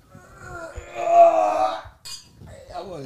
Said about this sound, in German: Müssen wir wieder einen Wein trinken, komm, wir müssen anstoßen. Nochmal anstoßen.